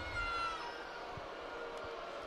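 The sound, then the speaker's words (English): A large basketball arena crowd at a Warriors game voices its displeasure at a foul called on Looney in a sustained, dense roar of boos and jeers, steady and fairly loud throughout, with no clear talking over it. “Crowd didn't like the call.”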